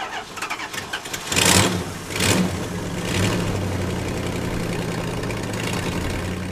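A truck's large engine cranks and catches, revving in a couple of bursts before settling into a steady rumbling idle, as it is about to drive to a shelter in Mexico across the border. No voices are heard.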